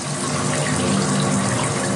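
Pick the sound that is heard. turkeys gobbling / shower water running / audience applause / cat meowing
shower water running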